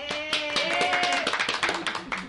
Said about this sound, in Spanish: Ese soy yo aplaudiéndome.